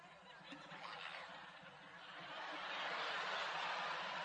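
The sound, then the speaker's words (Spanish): A person imitates a tiger's roar with a breathy, raspy growl that swells louder toward the end, coming out more hissy and feeble than fierce, like a kitten. “Porque me sale el tigre.”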